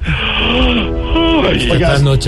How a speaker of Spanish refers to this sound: ¿Será que puede dejar de bostezar, señor, por favor? Claro, pero cuando en el canal me cambien el turno que esta trasnochadera me está matando.